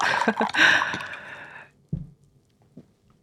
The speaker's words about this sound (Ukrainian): Ви чуєте, як наливається зелений чай, і наша бесіда продовжується.